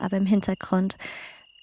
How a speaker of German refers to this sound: Ich sitze gerade an einem mehrere hundert Jahre alten Olivenbaum, über mir sternenklarer Himmel und im Hintergrund, hoffe ich, hörst du das Zirpen der Grillen. Es ist total schön.